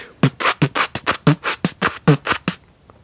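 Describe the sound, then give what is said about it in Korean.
A voice mimics squeezing an almost empty ketchup bottle as a vocal impression trick: about a dozen wet, sputtering bursts in quick rhythmic succession, fairly loud, ending in a brief faint trailing puff. “네, 일단 쓰리 콤보라고 있는데 빈 케찹 통에 남은 케찹 소리와 채찍 소리.”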